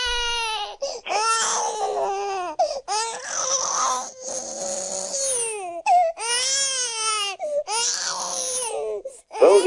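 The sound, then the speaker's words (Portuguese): An infant wails loudly and continuously in repeated drawn-out, piercing cries with short breaths between them, with no other voices present. “Vamos em frente, deixemos aqui o, o bebê chorando o neném para chorar.”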